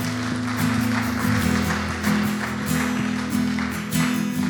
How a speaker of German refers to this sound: Lass uns den Menschen einen Applaus geben.